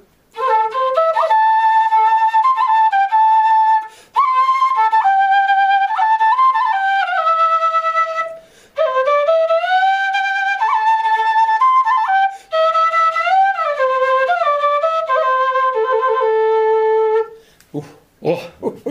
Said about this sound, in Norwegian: I musikken fra Andesfjellene så har vi jo ulike typer fløyter, bl.a. Kena-fløyte.